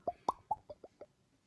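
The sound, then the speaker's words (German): A voice imitates popcorn popping with six quick mouth pops in a steady, evenly spaced series. The pops are crisp, growing gradually softer, with no talking. “Äh, kannst du das, kannst du das Popcorn-Geräusch nachmachen?”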